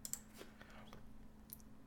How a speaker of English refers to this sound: Why am I typing?